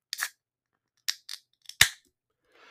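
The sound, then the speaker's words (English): A can of Queen Bee beer from Remedy Brewing is cracked open: a few short metallic clicks, then a sharp hissing pop, followed by a faint fizz trailing off at the end. No one speaks. “That's the sweet sound of a queen bee from Remedy Brewing.”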